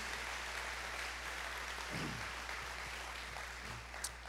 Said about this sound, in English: And can we give our first time guest at every campus a round of applause. Come on, can we just, and welcome all of our campuses.